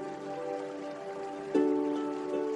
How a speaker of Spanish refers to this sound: Sigue en conexión con el sonido del agua.